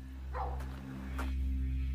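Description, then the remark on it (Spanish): A dog abandoned inside a rental house in the Strasburg area barks twice, muffled, with a pause between the barks, over a steady low electrical hum. “Un perro ha sido abandonado dentro de una de sus casas.”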